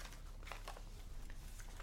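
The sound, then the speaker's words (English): Soft, irregular rustling of papers inside a satchel across the room, a few crinkly bursts spread over a couple of seconds, quiet, with no voices. “And the sound of papers rustling in the satchel is coming from across the room.”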